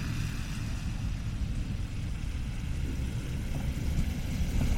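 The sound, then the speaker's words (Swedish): Steady low rumble of city street traffic on a sunny day, a continuous dense roar of engines with no clear gaps, moderately loud, with no voices. “Det är ju mycket trafik här och det kanske är jobbigt att lyssna på, jag vet inte.”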